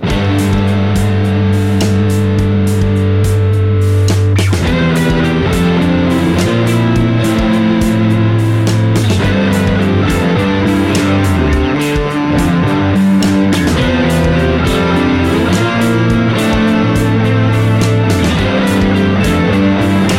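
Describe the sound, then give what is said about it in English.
Electric guitar played through a KMA Worm 2 effects pedal, the only pedal in the chain, into a Neural DSP signature clean amp preset in a DAW with no post EQ, reverb or delay; thick, sustained chords and picked notes ring continuously at a steady, loud level, with no voices. “The Worm 2 is the only effects pedal in the chain. I've added no post EQ, no reverbs, no delays, no extra bass or keys.”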